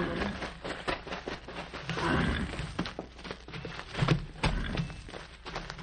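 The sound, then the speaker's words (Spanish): Horse hooves clop in a steady, uneven patter, with a horse whinnying partway through, all over a rough outdoor background with no clear talk. “Ahora que están distraídos, sube al caballo y vámonos, tío”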